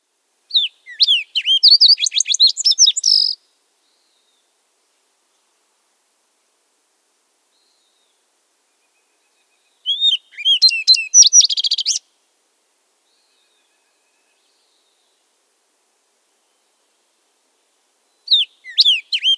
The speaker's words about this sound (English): Again, there's a lot of variation in the fox sparrow songs. The variations in the fox sparrow songs are associated with the different subspecies of fox sparrows.